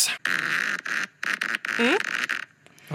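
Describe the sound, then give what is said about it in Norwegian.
A long, raspy fart, one of four prepared farts in the Prutti Krutti Promp guessing game where contestants must find where it was released, sputters out in several fairly loud bursts with brief gaps, with a buzzy, zipper-like rasp and a low squeak near the end. “så har jeg forberedt fire fiser som er fist på ulike steder og objekter”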